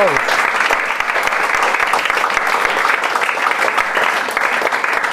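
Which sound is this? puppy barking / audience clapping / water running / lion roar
audience clapping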